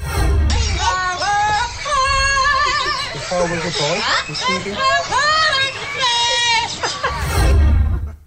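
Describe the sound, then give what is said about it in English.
A parrot sings a pop tune in a shrill, warbling voice, its pitch sliding up and down in continuous phrases. It is loud, with a faint low rumble underneath. “It's a parrot that sings”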